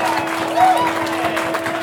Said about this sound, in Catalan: Moltes felicitats a tots tres! Un fort aplaudiment i que l'any que venent, sisplau, sigueu més breus!